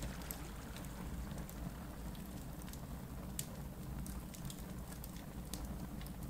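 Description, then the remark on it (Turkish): A steady fire burning in front of the group crackles and pops, with scattered sharp snaps over a constant low rumble and hiss. No one speaks. “önümüzde duran ateşin dönüştürücü gücü bizlere şifasını sunmaya başlasın.”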